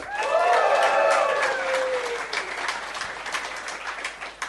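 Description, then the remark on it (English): An audience breaks into steady applause for a DJ, with a high whooping cheer rising over the clapping in the first couple of seconds, then the clapping gradually thins out and fades. “Uh, let's hear it for him.”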